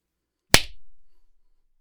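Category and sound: human body sound, hand clap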